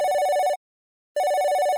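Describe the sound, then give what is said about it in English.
A telephone rings with a trilling, bell-like tone in two loud bursts separated by a short pause, with no voices. “One year later, she gets a phone call”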